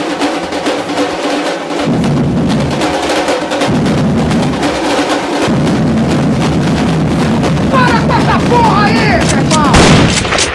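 Loud, dense samba-reggae drumming with pounding bass drums and rattling snares in a driving rhythm, building fuller after a couple of seconds, with shrill whistles or cries rising near the end.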